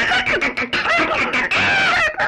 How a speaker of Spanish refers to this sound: las gallinas cacareaban como burlándose de ella.